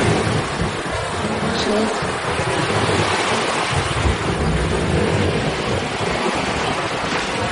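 Sea waves break on a shore in a continuous, loud, rushing roar, a dense wash of surf that swells slightly without ever falling quiet.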